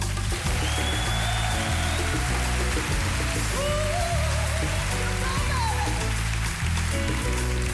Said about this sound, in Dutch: Mag ik van u een warm applaus voor Miss Sarina Voren?